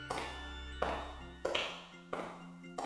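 Slow, even footsteps of a man with a flashlight climbing the stairs toward the second floor of an empty, dark, dust-covered building: five sharp taps about two-thirds of a second apart, each fading into a lingering reverberant tail. No voices.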